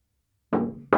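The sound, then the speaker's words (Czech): Two loud thuds of a drink slammed down hard onto a table, the first ringing briefly before a second hard knock follows right after; no voices. “S tím nesmíme tak třískat, my s tím vždycky potom toho loupneme jako svině o ten stůl.”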